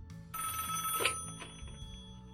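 A telephone rings loudly for an incoming call from a listener, a bright sustained electronic ring with steady tones that fills the short moment without any voices.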